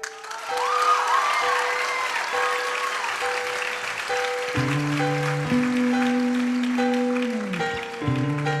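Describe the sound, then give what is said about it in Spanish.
An audience claps steadily and loudly throughout for the musicians, a dense wash of applause with scattered cheers, while sustained instrumental notes and a low bass line play underneath. “Un aplauso para ellos.”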